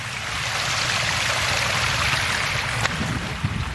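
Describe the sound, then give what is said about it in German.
Rainwater rushes steadily down a narrow street between walls in a small village after heavy rain and hail, a continuous gurgling wash with no pauses, plus one faint click near the end and no voices. “Ja, und oh krass, hier läuft auch hier läuft auch das Wasser hier die Straße runter.”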